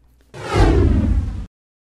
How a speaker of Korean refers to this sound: 오공은 몸을 훌쩍 허공에 날리더니 삼장이 고개를 들었을 때는 이미 휙 하는 바람 소리만 남기고 동쪽으로 멀어져 갔습니다